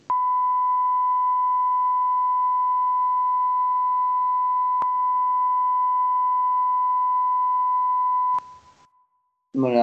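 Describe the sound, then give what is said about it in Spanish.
A steady, loud bleep tone holds a single pitch for about eight seconds, with a brief click in the middle, then cuts off and a voice begins speaking at the very end. “Pitido otra vez.”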